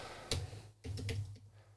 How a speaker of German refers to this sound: Okay, da muss ich es aber schnell tippen, warte mal.